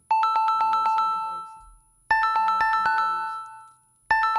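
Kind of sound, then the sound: signal or alarm, phone ringing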